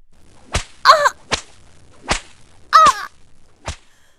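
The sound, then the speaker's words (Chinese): Four sharp, loud whip cracks from a spiked steel whip land at uneven intervals, and between them come two short, strained cries of pain from a person being lashed. “带刺的鞭子狠狠地鞭打着江姐，她咬紧牙关，忍受着身体的痛苦”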